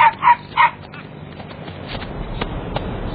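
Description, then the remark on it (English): Puppies let out three quick, high-pitched yaps in the first half-second. A low, steady murmur follows with no more barking. “Come on, puppies.”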